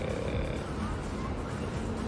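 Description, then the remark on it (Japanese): A tram rattles and rumbles along George Street, a steady low clattering drone that stays fairly constant in loudness throughout, with no voices over it. “今あの後ろの方でガタガタ音しますこれあの路面電車の走ってる音ですねでジョージストリートというところに路面電車が走りまして”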